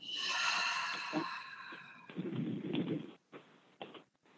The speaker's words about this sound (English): Breathing in, exhaling,